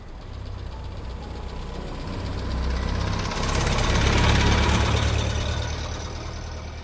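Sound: bus engine running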